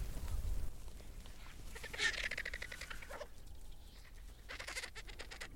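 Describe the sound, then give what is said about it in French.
Harsh, squealing griffon vulture calls rise from a flock of probably 40 or 50 birds, one sharp burst near the middle and another later, over a low, steady rumble of wind or movement. “On entend leur On entend leurs cris.”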